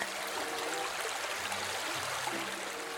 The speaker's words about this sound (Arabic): وكالعادة وبمرورها جوار جدول الماء